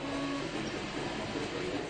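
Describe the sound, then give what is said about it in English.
A 3D printer runs at a fair with a steady mechanical whir and a faint, sustained motor whine, continuous for the whole moment, with no one speaking. “3D printers read blueprints of an object that users download to a computer.”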